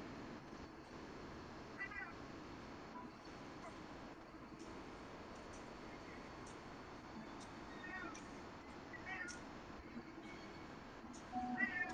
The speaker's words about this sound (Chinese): 看看你干嘛？一直在喵喵叫。我又没欠你钱。